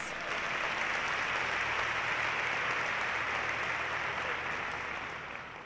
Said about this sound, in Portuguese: Você pode dar uma salva de palmas para Jesus?